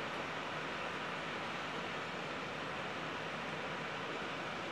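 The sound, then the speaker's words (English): Heavy pouring rain makes a dense, steady hiss that fills the whole stretch without pause, with no voices or other distinct sounds standing out. “recording that quote, that compilation of quotes from Robin Williams, it started pouring rain.”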